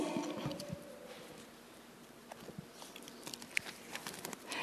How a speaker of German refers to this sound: Und ähm, der Bibelvers, wir, wir können mal kurz blättern in 2. Korinther 6, Vers 16.